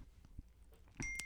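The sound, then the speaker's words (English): A faint, short electronic notification chime from a laptop receiving a text message sounds near the end, a single steady tone with a couple of soft clicks, with no one speaking. “It's my sister texting me, and it's not my phone it's my laptop getting those notifications.”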